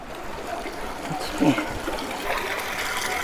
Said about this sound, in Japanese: 川がね、両端に流れてるね。山からの川だね。いいね。